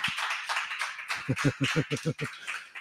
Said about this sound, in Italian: A parte, vabbè, un applauso al nostro pubblico, va, fatevelo da soli.